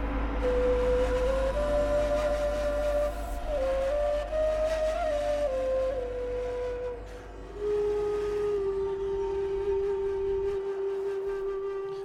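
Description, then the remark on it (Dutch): A whistle, played in a studio, plays a slow sequence of long, steady held notes that step up and then down in pitch, loud, with no talking and a low hum underneath. “Dat is die, eh, die fluit. Die is ingespeeld dus door, eh, hier in de studio”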